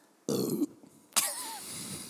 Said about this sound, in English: Nobody's gonna listen to this podcast if you keep burping on air.